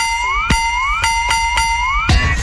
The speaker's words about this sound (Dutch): En dit was het belletje.